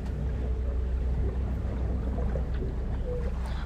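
A boat's engine drones steadily while the boat is under way, its low rumble constant throughout, with water rushing and hissing along the hull in the background. No one speaks.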